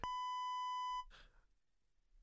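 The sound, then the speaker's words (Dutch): A steady, high-pitched censor beep holds one flat tone for about a second, then cuts off abruptly, leaving a brief burst of breathy noise and low rumble. “Nee, want het is een piep.”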